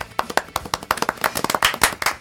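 A small group claps for about two seconds, sharp overlapping hand slaps in a quick, uneven patter that stays fairly steady and moderately loud, with no one talking.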